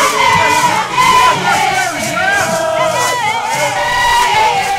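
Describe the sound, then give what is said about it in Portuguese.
A large indigenous protest crowd of more than 6,000 people shouts and chants together in the streets of Brasília, protesting bills that would open indigenous lands to mining; many voices overlap in loud, sustained cries with no pause throughout. “A causa indígena fez ouvir as suas vozes nas ruas de Brasília através de uma manifestação contra os projetos de lei que prevêem a libertação de terras indígenas para exploração mineira.”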